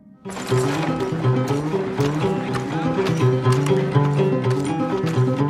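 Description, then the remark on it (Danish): Rapid hoofbeats pound steadily, like horses galloping in a race, blended with a loud, sustained musical backdrop that stays full and constant throughout. “Så han tilbyder, at Butch Cassidy kan blive hans partner, og at de nu sammen kan tage ud og score kassen på hestevedløb andre steder.”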